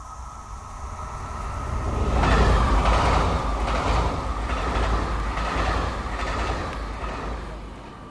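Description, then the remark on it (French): A train rumbles past with a low, steady roar and rhythmic clatter of wheels over rail joints, swelling around the middle, amid the broad wash of a busy station. “J'entre à la gare.”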